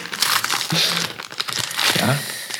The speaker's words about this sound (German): Papier äh, knistern.